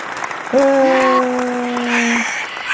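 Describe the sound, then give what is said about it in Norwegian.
A short burst of digital crowd applause, many hands clapping steadily, with a long sustained whooping cheer held over it before the clapping carries on to the end. “Digital applaus. Kjør applaus.”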